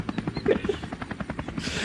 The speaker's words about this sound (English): rented uh, a Barstool helicopter